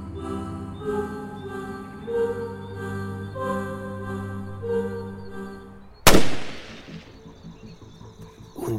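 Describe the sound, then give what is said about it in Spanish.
After several seconds of sustained, droning tonal music, a single loud gunshot cracks out in a forest and its echo rolls away slowly across a wide area, leaving a quieter outdoor ambience behind. “disparo detonó. Su eco recorrió con velocidad un gran perímetro de aquel bosque.”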